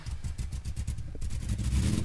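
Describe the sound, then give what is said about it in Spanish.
A car engine cranks with a quick, rhythmic chugging, then catches and settles into a louder, steady rumbling idle that swells slightly. “Vamos a ver si arranca. Tiene que arrancar.”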